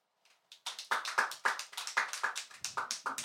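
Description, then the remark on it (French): An audience breaks into applause in answer to being asked who has felt in danger in a bar, starting with a few scattered claps and quickly swelling into steady, fairly loud clapping from many hands, with no voices over it. “mais qui se sent en danger dans un bar par applaudissement À qui c'est déjà arrivé de se sentir en danger dans un bar”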